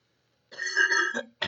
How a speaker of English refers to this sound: Oh my gosh. I am so sorry for coughing in the microphone.